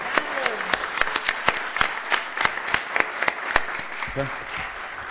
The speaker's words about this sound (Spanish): Así que démosle un enormísimo aplauso.